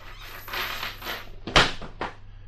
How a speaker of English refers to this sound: Well, so, if you're ready to meet Grandpa, let's open up this trap door and drop in.